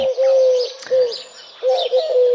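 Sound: turtle dove cooing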